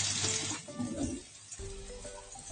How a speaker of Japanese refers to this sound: こんな感じでちょっとジュージューといってますが、